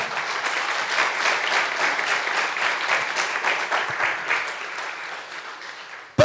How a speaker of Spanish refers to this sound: Cuando dicen amén, dele fuerte ese aplauso al Señor.